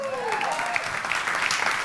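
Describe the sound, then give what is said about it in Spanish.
Steady crowd applause given for God during a sermon, a dense wash of clapping at a constant level, with a faint gliding tone early on sitting above the noise. “Dan un fuerte aplauso, su Dios.”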